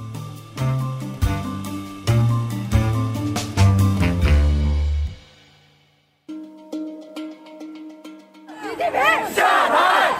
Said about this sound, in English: They chant Xi Jinping step down, an extraordinary show of defiance in China. In Shanghai, they chant for freedom, democracy, and end to COVID lockdowns